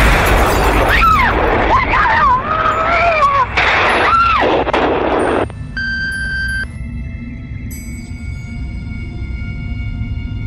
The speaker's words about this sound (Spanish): Ha habido una bomba en el tren y hemos tenido